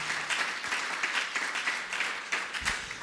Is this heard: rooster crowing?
no